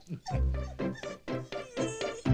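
Dogs whimper and yip in a rapid run of about six high, whiny cries, fairly loud, with no one speaking.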